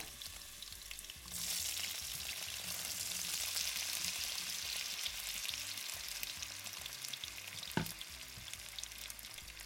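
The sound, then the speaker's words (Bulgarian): Peeled, cut-up potatoes sizzle and crackle in a little hot oil in a deep pan, a steady frying hiss that starts suddenly after a quiet moment, with a single brief knock near the end. “Тях пържа в дълбок тиган с малко олио”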